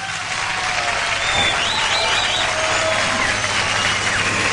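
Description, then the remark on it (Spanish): Steady, dense applause from a crowd fills the whole stretch at a loud, even level, with faint voices mixed into the clapping. “un aplauso, ¿eh?”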